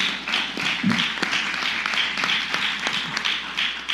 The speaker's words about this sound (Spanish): Denle un fuerte aplauso al Rey de la Gloria.